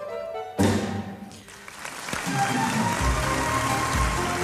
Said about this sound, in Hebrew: מחיאות הכפיים לשייקה, פולי וגברי, הגשש החיוור הנפלאים והנצחיים.